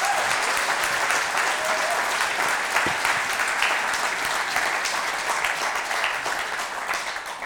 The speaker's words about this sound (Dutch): ja, laten we een groot applaus geven.